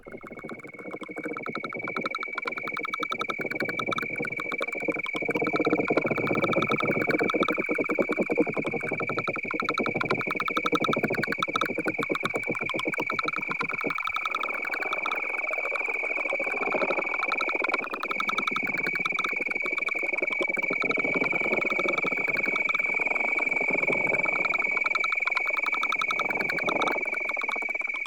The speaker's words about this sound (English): For example, crickets.